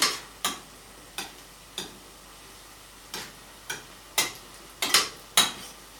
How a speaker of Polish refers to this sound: Przemieszam sobie kaszotto. Trzeba to robić mm, w miarę delikatnie, bo już dosyć dużo tych składników tutaj w patelni mamy.